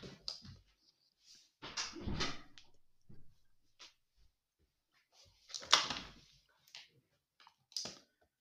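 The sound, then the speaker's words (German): A door is closed amid a string of short clunks, clicks and rustles, with a couple of heavier thuds in the middle. No one speaks. “macht die Tür zu”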